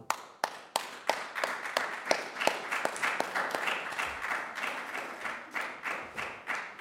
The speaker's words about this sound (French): Donc moi, je vous applaudis bien fort pour l'attitude de spectateur que vous avez eue, parce que c'était du bon boulot, les enfants. Bravo.